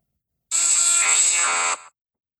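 The Electabuzz Pokémon cry: a single harsh, buzzing electronic screech lasting about a second and a half, loud and steady with a bright high-pitched whine, ending abruptly with a brief tail.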